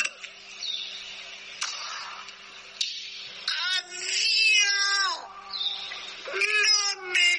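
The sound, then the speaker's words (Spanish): A played-back paranormal voice recording: eerie, warbling wails much like a cat's yowls, several drawn-out cries rising and falling over a faint steady hum, fairly loud, with nobody talking. “podríamos, podríamos escuchar el audio, la psicofonía lo podríamos escuchar en directo.”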